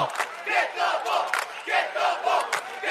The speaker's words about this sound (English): As you can hear, the Amherst student body right behind us. I can turn around and high five about 30 of them it's singlet day.